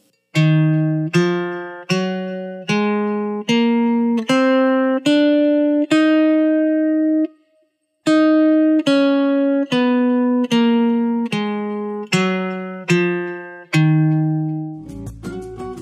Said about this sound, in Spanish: La escala de re sostenido menor melódica es así. Re sostenido, me sostenido, fa sostenido, sol sostenido, la sostenido, si sostenido, do doble sostenido y re sostenido. Escuchemos.